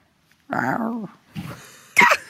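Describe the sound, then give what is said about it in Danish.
Emma Hayes imitates a purring cat with her voice at the press conference after the match: a drawn-out, wavering vocal sound, then two shorter, raspier bursts, fairly loud. “hun som at spinde ligesom en kat”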